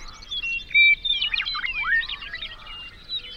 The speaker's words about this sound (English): Birdsong makes it through.